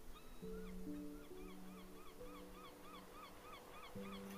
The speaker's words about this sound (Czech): Nech se unést melodickou symfonií morských vln které se střídavě přelévají.